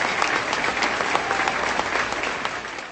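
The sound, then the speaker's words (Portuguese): An audience at an evangelical church service in Brasília applauds steadily, many hands clapping in a dense, even wash of sound that holds loud for the whole stretch without talk. “E vamos dar para Jesus na vida deles uma linda e calorosa salva de palmas.”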